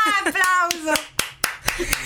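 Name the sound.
hands clapping in applause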